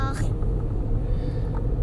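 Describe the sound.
Steady low rumble of road noise inside a moving car on the day of a school entrance ceremony, constant throughout, with a brief faint voice-like sound near the start.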